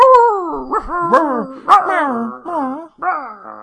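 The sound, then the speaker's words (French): A person's voice imitates a snarling, whining werewolf terrier dog in continuous bursts: rising and falling yelps and throaty growls, a brief pause, then a final growl. “Fait que je vais faire des bruits de Where Terrier.”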